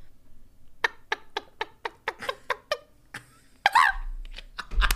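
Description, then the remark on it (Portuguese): A person imitates a chicken with a quick series of about ten short, clucking vocal bursts in a steady rhythm, fairly loud, ending in a squawk-like flourish and a few choppy sounds. “Essa foi a galinha.”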